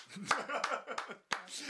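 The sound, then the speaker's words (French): A radio host on the Radio Campus Paris morning show claps their hands alone, with no audience present, about five times at a steady, unhurried pace, each clap sharp and fairly loud, with a brief pause before the last two. “Alors on n'est pas en public, donc il n'y a que mes applaudissements.”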